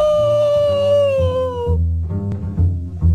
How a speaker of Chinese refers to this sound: 于是，公鸡站在树枝上，使劲儿地叫起来。哦哦哦！